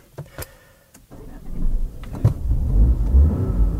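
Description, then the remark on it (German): A BMW car's three-cylinder engine starts up after a few clicks and a brief whir, then settles into a low, throbbing idle with an uneven, lumpy rumble, steady. “Und man hört gleich, oha, ein Dreizylinder.”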